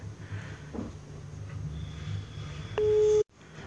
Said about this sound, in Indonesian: coba nih lagi menunggu nih berdering tungguin nih satu dua tiga tit oke kayaknya dia lagi tidur nih lagi tidur nih